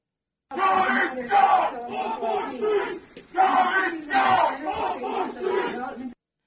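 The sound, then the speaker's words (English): Up to 20 protesters at a Monday meeting at the Red Ink Community Library in Rhode Island shouting together in loud, rhythmic bursts, a group chant rising and falling in repeated phrases with a brief lull midway before the yelling resumes. “Now, up to 20 protesters can be heard in a live stream of Monday's meeting at the Red Ink Community Library in Rhode Island.”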